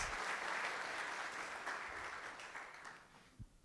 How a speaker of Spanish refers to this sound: Dar un aplauso fuerte a Dios en el nombre de Jesús.